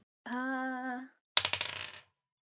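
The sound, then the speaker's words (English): Dice are rolled for a history check, clattering across a hard surface in a quick burst of rattling clicks lasting about half a second, fairly loud, preceded by a brief steady humming tone. “Uh you can roll a history.”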